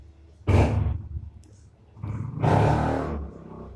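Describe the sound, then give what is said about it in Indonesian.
A motorbike engine roars loudly in two rough bursts, one short and one longer, like a noisy bike revving in a residential housing complex, with quiet background between them and no talking. “tai motor bising anjing”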